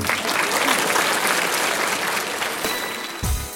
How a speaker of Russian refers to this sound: Все выступления гостей публика встречала громкими аплодисментами.